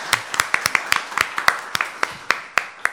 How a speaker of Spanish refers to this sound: Un aplauso para ella, ¿no? Es fenomenal, nada de nervios.